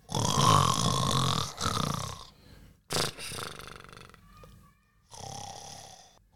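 A voice imitates loud, exaggerated snoring of the ogre Baborco, asleep on a little boy's bed: three long, rasping, rumbling snores with short pauses between them, the first the longest and heaviest.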